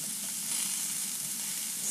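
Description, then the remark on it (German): Steady, crackling sizzle of unseasoned kohlrabi being browned in a pan, a dense hiss of fine pops filling the whole two seconds, swelling slightly at the end, with no one speaking. “Kohlrabi würzen wir noch nicht, weil wir wollen den erst ein bisschen braun kriegen.”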